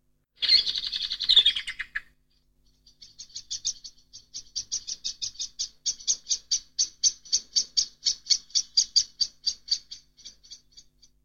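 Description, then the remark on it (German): Several blackbirds give sharp, rapid mobbing alarm calls to drive a cat out of a garden: a harsh burst opens, then a long, insistent series of clicking chinks repeats quickly and steadily, with no talking. “da sind mehrere Amseln beteiligt, einen Feind wegzutreiben. So, die mobben die Katze jetzt aus dem Garten.”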